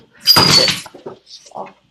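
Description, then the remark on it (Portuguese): A loud, sudden crash of things being knocked over, like a cat sending objects tumbling, with a bright breaking rattle, followed by a few softer clatters and brief murmured voices. “as gravações são sempre permeadas por gatos fazendo bagunça.”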